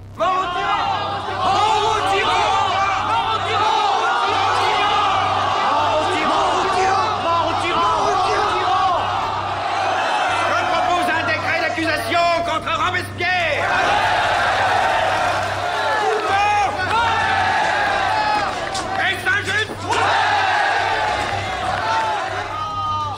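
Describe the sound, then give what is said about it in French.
A packed hall of deputies in an assembly in Paris erupts in loud, continuous shouting and overlapping voices as Robespierre is arrested on 27 July 1794, many people yelling at once with occasional sharper cries rising above the dense, agitated din. “Le 27 juillet 1794, sous les cris des députés,”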